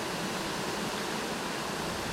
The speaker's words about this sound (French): avec le vent qui nous accompagne, le vent dans le dos